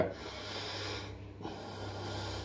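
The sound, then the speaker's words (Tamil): Slow, deliberate pranayama breathing as practised in hatha yoga meditation: a long, airy breath through the nose, a brief pause, then another drawn-out breath, with a faint low hum underneath and no talking. “meditation வந்து நீங்கள் ஹடயோகத்தில் போனீங்கன்னா என்ன சொல்கிறாங்க நீங்கள் பிராணாயமாக பண்ணுங்க”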